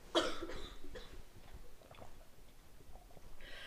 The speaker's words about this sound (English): Excuse me, she's having a coughing fit.